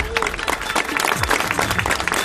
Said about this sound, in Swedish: Allra först på scen nu ska jag välkomna upp Expressens politiska kommentator KG Bergström. Jag tycker vi ger honom en applåd.